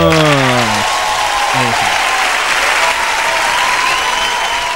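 An audience breaks into loud, steady applause that holds for several seconds, a dense wash of clapping, with a brief voice trailing off at the very start.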